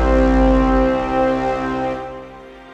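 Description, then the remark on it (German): A mobile phone ringtone sounds loud in an advertising agency's office in Miami in January 2004, a rich sustained electronic tone that holds steady for about two seconds before fading away. No one speaks. “im Büro der Werbeagentur Crispin Porter Bogaski in Miami klingelt das Handy von Andrew Keller”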